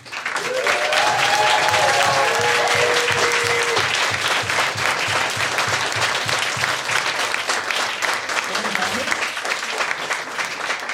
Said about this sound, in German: So, und zum grünen Abschluss, wenn es euch gefallen hat hier bei uns, dann macht nochmal Lärm für die letzten Sekunden der Aufnahme des heutigen Abends.